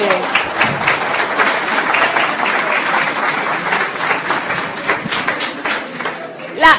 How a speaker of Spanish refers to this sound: Un aplauso a la señora. Un aplauso, sí.